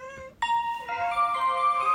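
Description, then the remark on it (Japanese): A cat meows: a short cry, then a long, drawn-out, wavering meow that carries on steadily to the end, with no other voices. “めっちゃ猫喋るよ。”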